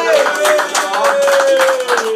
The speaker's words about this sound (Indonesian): Tepuk tangan dong teman-teman